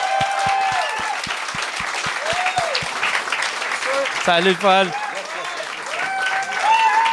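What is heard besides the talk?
audience applause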